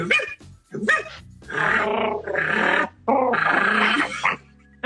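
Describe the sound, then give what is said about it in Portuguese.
A person loudly imitates a small dog's barking: a couple of short yips, then several longer, strained yapping bursts in quick succession, with no other talk. “Amiga, late pra elas.”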